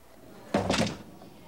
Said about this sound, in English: so Luke does leave, and that's when Scott closes the door behind Luke.